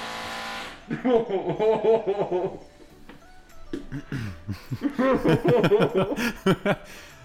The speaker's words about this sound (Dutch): Is de buurman nou aan het boren? hè? Ja, sorry, wacht even. Mijn buurman, die, die, heeft nog wel eens het idee dat hij... Eh, Ehm, ik heb het gevoel dat hij geen muur bij over heeft. die is alleen maar aan het klussen.